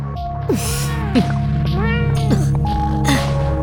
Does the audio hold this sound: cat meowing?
yes